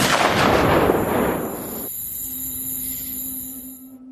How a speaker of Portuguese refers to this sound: O tiro passa bem longe do bicho, assim, tipo, acerta uma árvore.